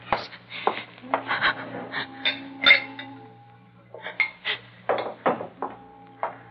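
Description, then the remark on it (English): A glass of water being poured and handed over: a run of light clinks, taps and scrapes of glassware, some bright ringing tones, over a steady low hum with no talking. “You want to try a drink or something? A, a glass of water.”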